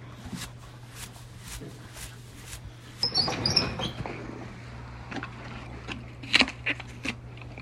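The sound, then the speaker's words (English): A horse named Falco bites into an apple with a loud crunch, splitting it in two, then chews it in short, uneven crackling bursts over a steady low hum. No one speaks. “He gingerly takes a bite, splitting the apple in two.”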